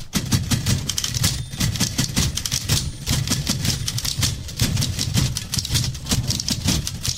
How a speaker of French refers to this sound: tout un orchestre de machines à écrire, j'en ai compté au moins 7, actionné par les musiciens